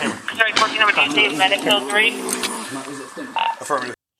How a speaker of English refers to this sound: snoring because he's knocked out.